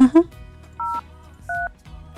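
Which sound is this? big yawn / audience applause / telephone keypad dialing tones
telephone keypad dialing tones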